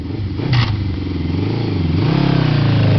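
A motorcycle engine revs loud, its throaty pitch climbing in two surges with a brief clattering burst early on, then holding a steady rising growl.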